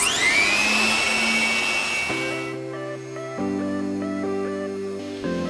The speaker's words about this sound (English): And when we crank up the air blower, the spinning windmill generates enough power to charge our phones.